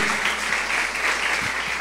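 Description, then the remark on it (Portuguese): A crowd applauds the Lord steadily, many hands clapping in a dense, continuous patter that stays fairly loud and even throughout, with no voices standing out. “Vamos aplaudir o Senhor, amém?”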